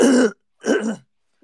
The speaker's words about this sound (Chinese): 嗯，没有，我刚刚嗓子不舒服啊，咳嗽。